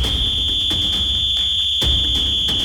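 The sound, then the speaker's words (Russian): A referee's whistle signals the start of a match against Canada's team, giving one long, steady, shrill note that holds unbroken for the whole stretch, over a low, rumbling background with a few soft thumps. “Судья свистнул, вот так.”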